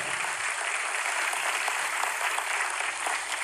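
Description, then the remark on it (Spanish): An audience applauds together for the King (the Lord), a dense, steady wash of many hands clapping that fills the space evenly from start to finish without any voices standing out. “Un aplauso para el Rey.”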